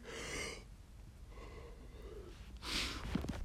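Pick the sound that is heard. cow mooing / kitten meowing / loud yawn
loud yawn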